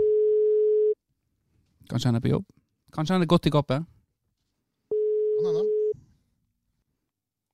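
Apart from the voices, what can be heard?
phone call ringing tone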